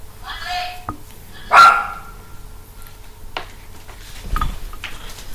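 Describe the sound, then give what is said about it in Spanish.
A dog named Marley barks in a house in a few short, sharp bursts, the loudest one coming early, over a low background hum. “¡Cállate, Marley! ¿Se oyen los altavoces?”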